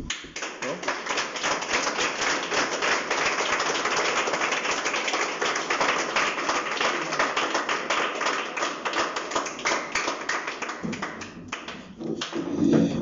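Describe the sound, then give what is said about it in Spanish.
A crowd claps steadily, giving a round of applause to God. A dense crackle of many hands with no talking, holding at an even loudness for about thirteen seconds and swelling slightly at the very end. “Entonces, ¿por qué no dárselo, darle un aplauso a Dios entonces?”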